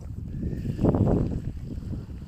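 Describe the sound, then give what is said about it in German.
Steady wind at the sea rushes and buffets against the microphone, blowing into the speaker's face. A stronger gust swells in the middle before it settles back to a constant blustery roar. “ja, hier am Meer lässt es sich gut fabulieren. Ich bin ja frei, der Wind bläst mir ins Gesicht, reinigt meine Synapsen von all den schlumpfigen Dingen”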